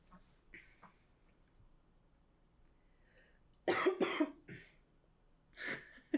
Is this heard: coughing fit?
yes